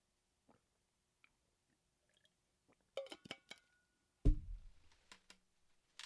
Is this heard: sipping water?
yes